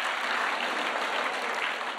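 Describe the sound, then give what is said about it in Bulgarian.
A crowd applauds steadily during a sermon, a dense wash of many hands clapping at an even, moderate volume with no voices standing out, sustained for the whole two seconds. “О, може ли да му дадем едно дарение на ръкопляскане?”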